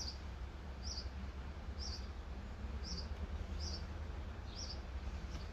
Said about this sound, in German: Lassen wir nochmal hier den, den Vogel ja. zwitschern, noch so ein bisschen Atmo, man nennt das Atmo. Atmo? Wir lassen nochmal ein bisschen Atmo aufs Band. Also den, den, den Fluss hört man so